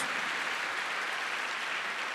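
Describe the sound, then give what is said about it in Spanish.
An audience claps steadily in applause for God, a dense, even wash of many hands that holds at the same strong level throughout the two seconds with no voices breaking through. “Fuerte ese aplauso al que vivo, al que vive por los siglos de los siglos.”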